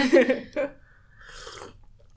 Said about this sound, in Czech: A druhý krok uh, usrkneme. Na hlas samozřejmě. Tady eh, si oddalte sluchátka.